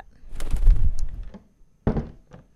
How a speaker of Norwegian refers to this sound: jeg tror, jeg tror det er tid for å slippe den ut, jeg. Ja. Ha det bra, lille due.